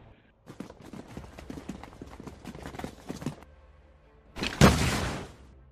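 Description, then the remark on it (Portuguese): Horse hooves clip-clop in a quick, steady patter for about three seconds, followed after a brief pause by a louder, rushing burst of noise that fades out. “E a Maria pegou os cavalos e foi para trás.”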